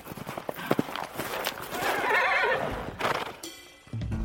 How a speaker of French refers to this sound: Léa siffle. Un hennissement lointain lui répond. Un instant plus tard, Ablut, son fidèle poney, arrive au galop.